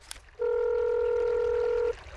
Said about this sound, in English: I managed to fish my phone out of my pocket and hit the first number on speed dial.